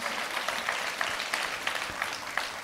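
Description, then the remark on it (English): An audience at a church service claps steadily as fifth and sixth graders leave the room, a dense wash of many hands with occasional sharper claps poking out, holding an even, moderate loudness throughout with no voices. “Um, hey, Let's, uh, if you were in fifth or sixth grade, if you want to go ahead and head out of the room, let's clap for them and keep it going and welcome everybody that's watching online.”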